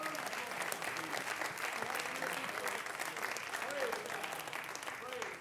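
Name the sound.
audience clapping hands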